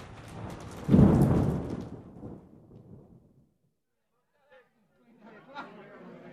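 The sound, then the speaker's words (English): A loud crack of thunder rolls and rumbles away over a few seconds amid steady rain during a terrible storm at night, followed by a brief pause and then faint murmuring voices. “Tonight, there is a terrible storm, and it is raining.”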